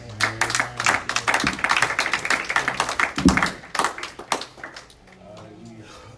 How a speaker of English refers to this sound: Praise God. Give the Lord a hand clap as he comes.